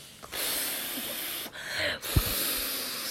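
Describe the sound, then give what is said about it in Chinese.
A voice reading a Chinese children's story imitates a character puffing out his cheeks and blowing hard: several weak, airy, hissing exhalations in a row, with brief catches of breath between them, soft and unimpressive. “气喘吁吁的声音，对，一点都不震撼。”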